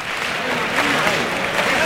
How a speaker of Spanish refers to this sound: Ahí, están las palmas.